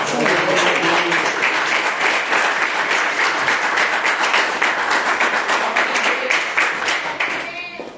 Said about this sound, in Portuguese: Eu agradeço a oportunidade, as palmas que louvam o Senhor Jesus